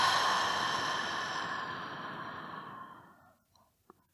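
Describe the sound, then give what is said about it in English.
A long, slow breath out during a guided breathing exercise, fairly loud at first, steadily softening over about three seconds into quiet, followed by a faint small click near the end. No talking. “So, breathing in and a long, slow exhale.”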